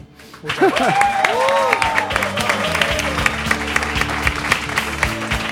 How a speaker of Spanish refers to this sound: Lo primero que hacemos es, por supuesto, un gran aplauso por estos minutos, que para nosotros siempre es un honor.